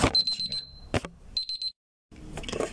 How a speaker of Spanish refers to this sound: no sé si escuchó, pero es que es una alarma para tomarme mi proteína.